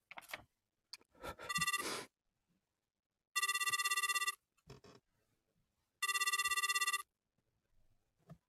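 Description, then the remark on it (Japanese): A phone ringback tone, heard while someone calls on a borrowed phone, sounds in three long, loud electronic bursts with pauses between, surrounded by soft clicks and handling noises before the call connects. “ちょっと電話借りるね。”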